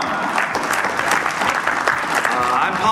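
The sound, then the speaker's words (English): A panel audience claps steadily for the panelists, a dense, continuous patter of many hands at a fairly loud, even level throughout, with a few cheers mixed in. “can we get a round of applause for our panelists?”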